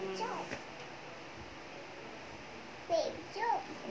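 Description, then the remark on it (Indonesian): A baby sitting beside the speaker babbles in short, high-pitched bursts, one near the start and a couple more near the end, with quiet background noise in between, disturbing the camera. “Lagi ada gangguan. Gangguan bayi kecil sini. Bayi kecil duduk sini, bayi kecil.”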